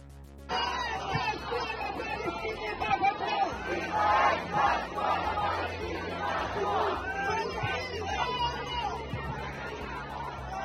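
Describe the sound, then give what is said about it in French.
A large crowd at a protest on Place de la République in Paris on Sunday 22 October shouts and chants slogans together at a distance, a continuous roaring mass of voices with rhythmic surges. “comme dans ce son qui vient du MIT où on entend des slogans au loin”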